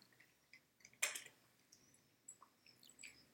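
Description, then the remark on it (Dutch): Soft, irregular crunching and small wet clicks of cats chewing their food in the background after playing, with one louder crunch near the middle; quiet against a still background, no talking. “Ondertussen hoor je mijn katten op de achtergrond knabbelen.”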